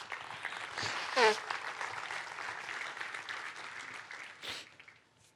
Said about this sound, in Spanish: Dele un fuerte aplauso a Dios.